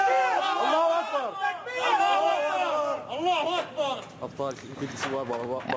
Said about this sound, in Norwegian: Vi hører eh, her lyden fra kampene i byen og islamister som roper 'Gud er stor'.